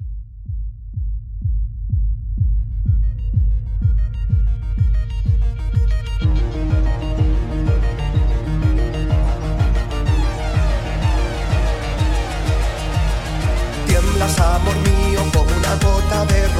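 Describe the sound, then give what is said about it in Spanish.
A newly released pop song plays loud, opening on a steady thumping kick beat, then layering in fuller synths and instruments that build to a bigger, brighter section near the end, with no singing yet. “Lo buscáis en YouTube para ver el vídeo, mucho mejor que oír la canción solamente y de verdad que es temazo, temazo.”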